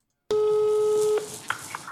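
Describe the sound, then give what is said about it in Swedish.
A single steady telephone ringing tone sounds for just under a second as a young woman calls her father, clear and fairly loud, then cuts off into a faint open-line hiss as the call connects. “när hon ringer sin pappa och berättar att hon ska gifta sig.”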